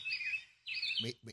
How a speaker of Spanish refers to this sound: Mira, el sonido de los pájaros. Así va, cuando usted va a un meeting que están todos esos políticos, ese es el sonido de los pájaros. Mírelo ahí, mira, qué bonito ese sonidito.